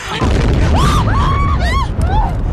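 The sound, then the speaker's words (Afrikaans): A loud, deep boom as a gas bottle explodes in a burning caravan in very strong wind, followed by a sustained low rumbling roar, while several voices cry out in rising and falling exclamations over it. “Seker die gasbottel wat ontplof het.”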